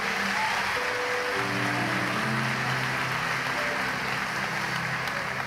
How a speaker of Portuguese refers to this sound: Dê um aplauso ao Senhor, dê um aplauso ao Senhor.